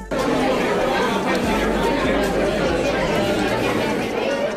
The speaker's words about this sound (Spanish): Esa música que nos dejan los bares, el ruido de sus gentes, los platos y los brindis, bebida en mano, es algo que deseábamos quizá.